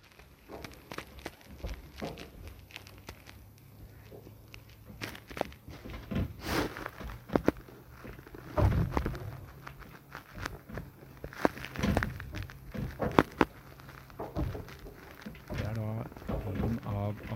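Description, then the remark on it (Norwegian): Inside a boat moored in Kragerø, wakes from speedboats passing at speed set off a busy run of knocks, thuds and creaks as the boat pulls on its mooring lines, over a steady low rumble, some jolts sharp. “ett minutt med lyden det var nedi der når det kom båter forbi i god fart”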